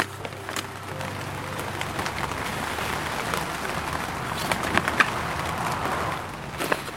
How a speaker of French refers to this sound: Ce matin, il pleut sur la première serre et Isabelle est à la tâche.